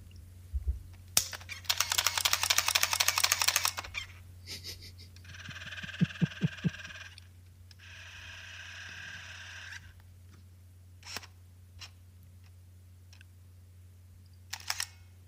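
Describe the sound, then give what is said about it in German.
A compact film camera: a snap of the film compartment closing, a buzzing motor automatically advancing the film, two whirring zoom runs, faint autofocus ticks, then a crisp shutter release click. No one speaks, and a low hum runs throughout. “Was man hört, ist das Schließen des Filmfachs, den automatischen Einzug, den Zoom, den Autofokus und dann das Auslösen.”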